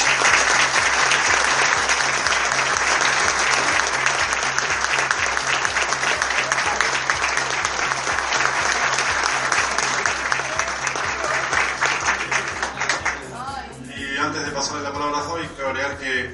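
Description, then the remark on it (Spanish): A film festival audience claps loudly and steadily for the festival team for about thirteen seconds in a dense, unbroken wash, then the applause fades and a voice begins speaking. “Así que les pido un fuerte aplauso por ellos.”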